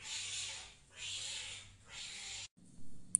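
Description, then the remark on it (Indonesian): Cats fighting, with three long, drawn-out screeching yowls in quick succession, then a brief silence and a faint murmur of background noise. “Sorry, kenapa tiba-tiba itu ada kucing berantem.”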